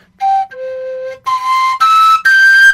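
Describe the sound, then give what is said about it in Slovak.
A hastily drilled three-hole folk pipe plays five sustained notes of its basic scale, formed by overblowing the end tones, stepping between pitches, the later higher tones breathier and brighter, clear with no voices. “toto je tak narýchlo vyvrtaná, ale vlastne plní ten účel na ukážku, takže Takže e, máš pišťaly trojderové, ktoré hrajú v zásade v stupnici základnej, ktorá vzniká prefukmi koncových tónov.”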